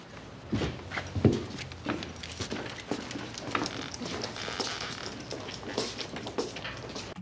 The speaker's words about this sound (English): So you hear the leash and the little dog following with his footsteps behind Herschel and Quint as they exit the Amity Town Hall.